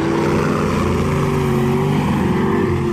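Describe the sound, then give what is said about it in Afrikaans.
A giant helicopter at an airport hovers very close above cars, trying to catch them, its loud, steady engine and rotor drone filling the whole stretch with a constant, throbbing roar and no voices. “Hoe hierdie reuse helikopter baie baie naby aan hierdie motors hang.”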